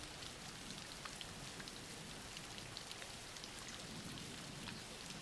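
Steady rain falls continuously, a dense, even hiss with scattered droplet taps pattering on a surface, moderately loud, with no voices or other sounds.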